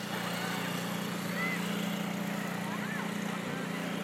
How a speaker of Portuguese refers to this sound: Era um barco esse? Era um barquinho